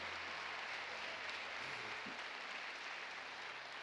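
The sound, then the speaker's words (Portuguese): A church audience applauds together for the Lord, a dense, steady wash of clapping from many hands that fills the whole moment without pause, with no voices standing out above it. “Isso mesmo, pode aplaudir ao Senhor.”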